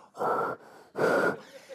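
Two long, breathy exhales as a person breathes on a frozen key held in their hands to thaw it, each lasting under half a second with a soft, quieter breath in between.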